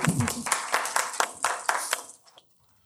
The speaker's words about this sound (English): Let's give her a round of applause as well.